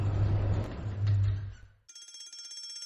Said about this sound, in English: That's the fire alarm.